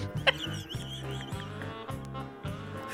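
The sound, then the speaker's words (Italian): Someone blows their nose, a rough, honking nasal burst that sputters on for a few seconds over a steady low rumble, with no talking. “ma scusate, c'è ancora un po' di, di, mi stavo soffiando il naso.”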